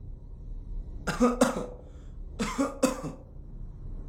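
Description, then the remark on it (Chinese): Two pairs of short, harsh coughs, each pair a quick double burst, separated by a brief pause, over a faint low background hum with no speech. “身后传来的咳嗽声，让小乔内心的恐惧放大到极点，连回头看的勇气都失去了。”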